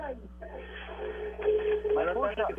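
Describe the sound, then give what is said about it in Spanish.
A caller's radio plays in the background over a thin, telephone-quality line during a call to a radio show, its muffled voices and music blending into a steady, busy murmur at moderate loudness. “Mira, baja el radio, que lo que oigo ahí es un revolú.”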